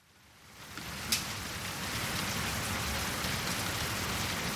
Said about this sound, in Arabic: وجد السيد سو نفسه في وسط عاصفة رعدية وهو في طريقه من كانن إلى جومونجين سارع بدخول منزل ليحتمي من المطر